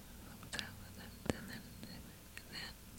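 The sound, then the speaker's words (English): Soft, breathy ASMR-style whispering into the microphone, a few short airy bursts and lip sounds over three seconds, quiet and hushed with no clearly intelligible words. “ASMR can also be whispering like this.”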